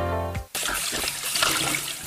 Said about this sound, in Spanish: Pero no desperdices agua. Cierra la llave, por favor.